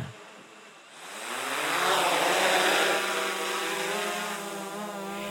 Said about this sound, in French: Il va faire des prises de vue du quartier du ronceret glonnière avec un drone.